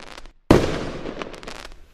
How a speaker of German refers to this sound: Der letzte Tag im Jahr wird oft lautstark gefeiert. Raketen, Böller und Feuerwerkskörper werden in die Luft geschossen. Nicht selten rauschen wir mit einem Höllenspektakel in den Jahreswechsel.